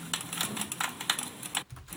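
A rapid series of sharp plastic clicks from pressing the right Ctrl key on a computer keyboard, tapped in quick, slightly uneven succession, with a brief pause near the end and no voices.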